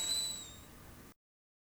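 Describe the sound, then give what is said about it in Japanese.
Steam hisses steadily for about a second, with thin high whistling tones over it that fade partway through, before the sound cuts off abruptly into silence. “いい音なります。湯気の音。”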